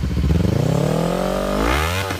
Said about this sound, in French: les deux motos démarrent.